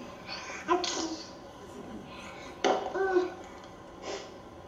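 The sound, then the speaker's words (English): A couple of short, breathy sneeze-like bursts, two 10-month-old twin infants imitating their father's sneeze, with a brief squeaky vocal sound between them, fairly quiet against a hushed background. “I think he's just sneezed.”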